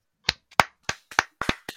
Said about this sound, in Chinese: 走音了耶， 掌声，掌声！